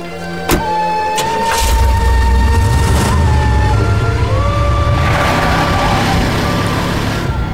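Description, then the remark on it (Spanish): A car engine hums steadily with a deep, continuous rumble as the vehicle drives along, interrupted by a brief thump near the start, with no voices. “Será mejor encontrar un lugar para estacionarme y pasar la noche aquí en el auto.”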